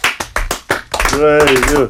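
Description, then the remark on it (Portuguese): A small, feeble round of applause: about five sparse, evenly spaced claps from what sounds like just one or two people, quickly giving way to a voice talking, for a startup ranked third in a list of disruptive startups. “Reparem na animação, é, é a salva de palmas mais triste sempre eh, que, ouvi, que ouvi alguém.”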